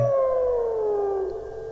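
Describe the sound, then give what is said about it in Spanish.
A powerful wolf howl, one long, loud, sustained cry that slowly slides downward in pitch, fading slightly at the end with no voices around it. “El Vengador lanza un potente aullido y luego cae pesadamente.”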